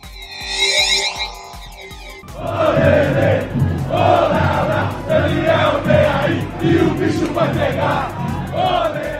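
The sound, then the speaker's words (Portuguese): At Congonhas International Airport in São Paulo, hundreds of São Paulo football club fans cheer and chant together in a loud, sustained roar as they welcome arriving player Daniel Alves, with rhythmic shouting rising and falling, preceded by a brief harmonic horn-like blast at the start. “Centenas de torcedores fizeram a festa quando o novo lateral direito São Paulino desembarcou na capital”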